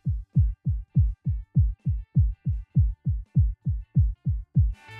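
A very fast human heartbeat, about 200 beats per minute, the maximum rate of a fit adult under heavy exertion: deep, booming thumps in a steady, rapid rhythm, loud, with a brief burst of hiss at the very end.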